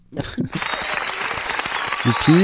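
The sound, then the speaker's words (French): Applause from a crowd: a dense, steady wash of clapping that swells in and holds loud throughout, with brief bursts of voices and cheering mixed in. “Je t'applaudis.”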